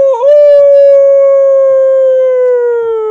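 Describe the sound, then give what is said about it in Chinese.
A voice imitates a dog's howl: one long, loud, sustained tone that dips briefly at the start, then holds steady and slowly slides lower over about three seconds. “它极其响亮的啼叫了几声，呜呜”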